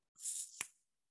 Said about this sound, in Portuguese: Mas tem esse shaker ele tem esse cliquezinho que é quando as bolinhas se tocam. Então é, dá para você fazer essa condução